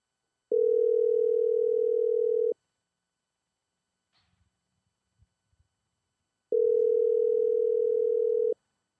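A telephone line tone while a call is placed to someone in Louisiana, which goes unanswered: two steady, even two-second hums separated by a long silent pause, with a few faint clicks in the gap. No one speaks.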